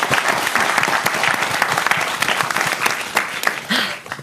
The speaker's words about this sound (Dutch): Goed applaus, jongens.